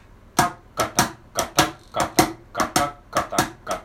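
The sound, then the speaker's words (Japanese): A mini cajon played by hand in a swinging shuffle, about fifteen crisp slaps in a lilting long-short pattern, alternating louder and softer strikes. No one speaks. “ミニカホンを叩いてみた④〜シャッフルについて〜”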